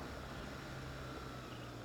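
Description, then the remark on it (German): A motorcycle engine drones steadily at a constant pitch while being ridden, mixed with rushing wind noise, continuous and fairly loud throughout with no voices. “Ähm, wundert euch nicht über die Motorradgeräusche. Ich fahre eben Motorrad im Moment.”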